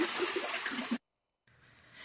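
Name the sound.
flowing river water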